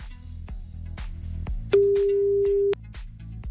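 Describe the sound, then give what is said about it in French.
A single steady ringback tone sounds for about a second on an outgoing call to a listener's phone from a withheld number, loud and clear over rhythmic background music with a pulsing beat. “il y a celui euh, de la personne que j'appelle maintenant.”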